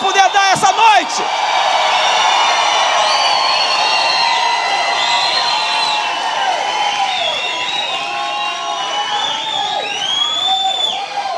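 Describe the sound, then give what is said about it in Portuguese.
A large crowd, called on to give their loudest shout, shouting and cheering loudly all at once, a dense, sustained roar of many voices with high whoops and yells rising over it for several seconds. “Me ajuda aí, dá o maior grito que você”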